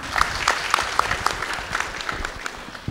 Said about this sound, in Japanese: 拍手で皆様お迎えください。